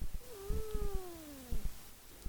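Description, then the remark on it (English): A friendly cat named Diki lets out one long, drawn-out meow that slowly falls in pitch, in a house basement, with soft thumps and shuffling noises around it and no one talking. “Oh, here is the kitty cat.”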